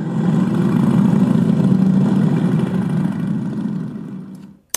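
Several motorcycle engines rumble and rev together as bikers mount and start their machines along Ludwig-Erhard-Straße, a loud, continuous low drone holding steady for a few seconds before cutting off abruptly, with no voices.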